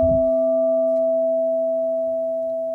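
A crystal singing bowl tuned to F at 432 hertz, the note for the heart chakra, rings with a pure, steady tone and bright overtones, sustaining smoothly and fading only slightly after a soft low strike at the start. No one speaks.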